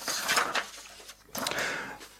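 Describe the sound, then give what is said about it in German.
Pages being flipped: two soft, papery rustling swishes, one after another, quiet and with no voices. “Ähm, ich muss mal kurz blättern.”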